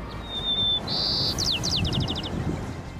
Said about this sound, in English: Why the coronavirus helped birds sing better songs.